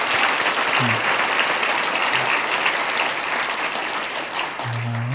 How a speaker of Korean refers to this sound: 그래서 오늘 우리 기빈들께는 또 하나의 소중한 만남 우리 초청자들과 함께 자리하고 계신데 우리 다시 한번 우리 기빈들과 초청자들 우리 환영하고 축복하는 마음으로 우리 큰 박수를 한번 하시면 좋겠습니다.